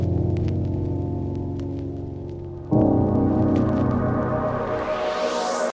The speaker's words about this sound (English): I created a short riser at the end of the break using a reversed chord from the piano sample